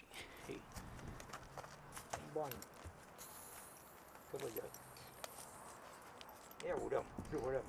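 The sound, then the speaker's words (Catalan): Horse hooves clip-clop in scattered, uneven steps on Menorca, Spain, as a man shows off his new horse, mixed with bursts of people's voices and a busy outdoor background. “Aquest que sentiu de fons és …, el protagonista del programa d'avui, que mostra Gafí, el seu nou cavall.”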